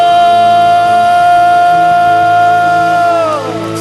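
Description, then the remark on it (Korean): A church audience claps in thanks and glory to the Lord and shouts in victory, loudly beneath a long, steady held chord that rings on for several seconds before sliding downward at the end. “바라고 원하고 믿으시는 만큼 주님께 감사와 영광의 박수 승리의 함성”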